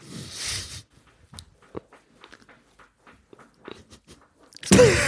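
Soft, irregular taps as a person nervously taps a foot against the floor while thinking, a dozen or so faint knocks in an uneven, restless rhythm, bracketed by a louder rustling burst at the start and end.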